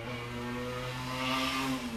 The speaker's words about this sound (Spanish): una moto.